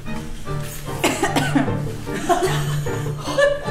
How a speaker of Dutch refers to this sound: Nog een kleine kuch ter afscheid.